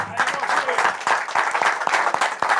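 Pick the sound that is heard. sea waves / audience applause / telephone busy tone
audience applause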